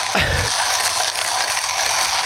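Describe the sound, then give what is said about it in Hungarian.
Steady grinding of coffee beans in a hand-cranked coffee grinder held to a microphone, a dense gritty rasp with faint ratcheting texture running continuously, plus a brief low thump at the start. “kérlek, egy kicsit darálj már bele a mikrofonba, légy szíves, hogy”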